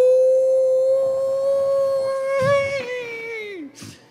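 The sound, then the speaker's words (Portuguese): A voice imitates a long anguished wail, a deep groan of visceral despair, holding one strained, steady tone for several seconds before it sags and falls away, followed by a short breathy gasp. “É um, é um, grito, um desespero visceral. É esse o sentido, né? Esse gemido profundo.”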